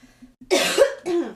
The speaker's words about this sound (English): sorry, I'm kinda like not super sick, but like a little bit sick, so if I am coughing in the background, I'm sorry.